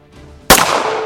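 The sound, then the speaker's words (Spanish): A single loud gunshot cracks out after a moment of low, quiet hum, its sharp blast trailing into a long, echoing reverberation. No one speaks. It is from the shooting of Peter de Vries in the Netherlands. “Cinco disparos, uno directo en la cabeza.”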